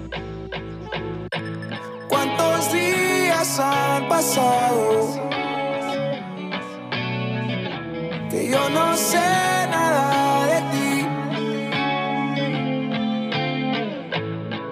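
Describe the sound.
A rock song plays loud and continuous, with driving distorted guitars, steady drums and a male singer delivering the verse up front in the mix.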